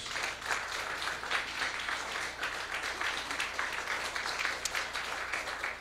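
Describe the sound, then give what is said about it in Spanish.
A crowd applauds for Jesus Christ steadily for several seconds, a dense wash of many hands clapping at an even, sustained loudness with no voices rising above it. “¿Cuánto le dan un aplauso a Cristo Jesús?”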